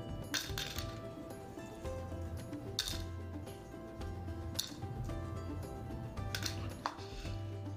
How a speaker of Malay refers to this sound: Kedua, masukkan klip kertas di dalam mangkuk yang kosong.